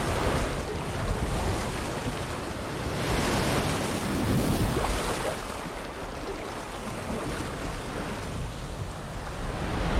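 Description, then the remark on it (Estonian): Steady rushing ocean waves with wind gusting over open water, a broad continuous wash that swells and eases over ten seconds, with no voices. “ei no, ma väidan, et see on kuskil mere peal.”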